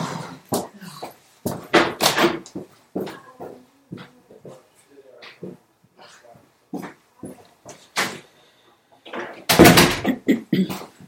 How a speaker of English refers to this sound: Well, should we pause that? There's just been a massive knock on the door. I'm sure you can edit it out. Okay. so I think I'm gonna have to go get the door.